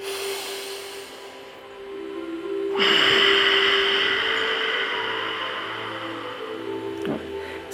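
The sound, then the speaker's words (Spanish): After a couple of seconds of quiet, a long, steady Ujjayi yoga exhalation, released by moving the diaphragm and throat, hisses through a constricted throat, fairly loud, sustained to the end with a soft ocean-like rasp. This breath is used in Hatha Yoga postures. “Es una respiración Ujjayi que nosotros la ocupamos para contención en cada una de las asanas que, ubicamos en Hatha Yoga y en otras eh, yogas, ¿no?”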